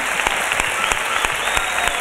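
An audience bursts into steady applause, a dense wash of many hands clapping with a few sharper claps standing out, sustained and fairly loud throughout with no talking over it.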